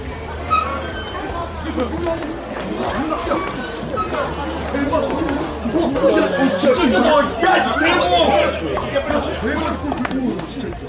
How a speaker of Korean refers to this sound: 아주 더웠고 습도가 높았다. 사람들은 에어컨 바람을 쐬기 위해 카페로 몰려들었다. 자리가 없어서 서 있는 사람들도 있었다. 주문이 밀렸다.